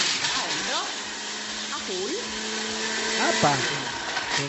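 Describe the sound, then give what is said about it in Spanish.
A steady, loud motor whir runs throughout as a blender blends ice, pineapple, cream, grated coconut, rum and a touch of lime until the mixture is smooth, with a voice speaking over it intermittently. “La llevamos a la licuadora por acá y la vamos a licuar hasta que la mezcla esté homogénea.”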